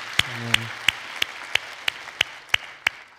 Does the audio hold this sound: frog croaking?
no